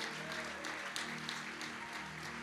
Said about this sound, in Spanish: Fuerte ese aplauso de alabanza para el Señor.